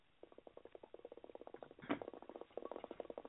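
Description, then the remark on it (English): Steady bubbling from a percolating water pipe, a rapid run of gurgling pops about ten per second that swells briefly in the middle, with no talking over it. “Oh, I think I hear some percolating.”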